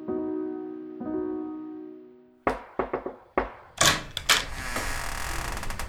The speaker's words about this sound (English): It was at this moment that there was a knock at the door.